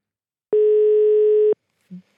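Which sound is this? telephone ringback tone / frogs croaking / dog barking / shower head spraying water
telephone ringback tone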